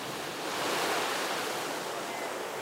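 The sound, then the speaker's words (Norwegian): Mediterranean waves wash with rhythmic regularity onto the stony beach at Ventimiglia, right by the border with France, on a warm summer day, a broad rushing hiss that swells slightly and then settles, with no voices over it. “Bølgene fra Middelhavet treffer stenstranden i Ventimilia med en rytmisk forutsigbarhet.”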